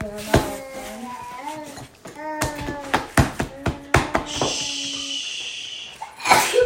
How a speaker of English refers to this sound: Bless you.